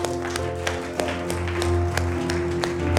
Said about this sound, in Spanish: Un aplauso, por favor.